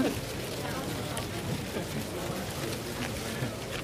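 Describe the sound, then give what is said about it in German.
A palm leaf rustles steadily, a continuous dry, crackling hiss with small irregular flutters running through the whole stretch at moderate loudness. “Äh, ich könnte das Rascheln aufnehmen.”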